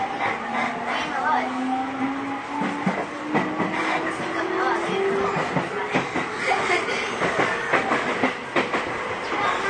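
A JR 209 series commuter train runs between Akihabara and Shinjuku with a continuous rumbling roar, a rising electric motor whine, and irregular rhythmic clacks of wheels over rail joints throughout.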